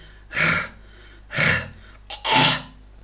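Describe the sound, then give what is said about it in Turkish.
A person vocally imitates the cough of a dog with pulmonary edema, typical of dogs with heart disease: three forceful, breathy hacking bursts spaced about a second apart, fairly loud, with no other talking. “Akciğer ödemi olan hayvanlar bu şekilde öksürürler çok sıklıkla.”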